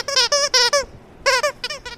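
A small dog at Le Canité, a dog café in Toulouse, yaps in quick, high-pitched yelps, two bursts of about four cries each with a brief pause between, loud with no talking.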